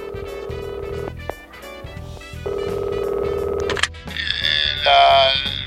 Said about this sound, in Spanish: Careca que recibe una llamada la noche anterior al partido, Federico. Atiende, teléfono a disco.